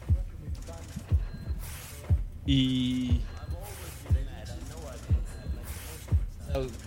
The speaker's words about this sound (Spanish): Imagínate la primera vez que lo escuchas. Ese, e, ese, ese latido. ¿Qué es esto, no? Es un gran intro. Sí. Es gran intro.